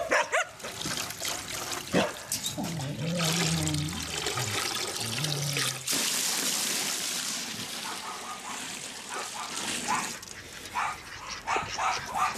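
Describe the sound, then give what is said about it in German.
Clattering and scraping give way to a steady rush of fresh water poured into a dog's water bowl for several seconds, after the old water is tipped out. Fairly loud, followed by more light clinks and splashes. “Das alte aufkippen und das äh, frisches rein.”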